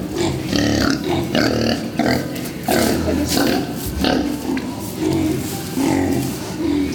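Several pigs in a pen, newly arrived that day, grunt and snort continuously, their low, rough calls overlapping in a loud, steady chorus with brief louder bursts throughout.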